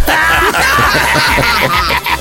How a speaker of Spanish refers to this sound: ¿Sí escuchaste que tu papá se puso a llorar, mija? Sí. Uy, uy, uy, tan grandote y tan chillo.